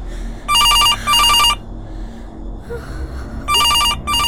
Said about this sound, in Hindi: वो कुछ समझ पाती इससे पहले ही दोबारा फोन बजा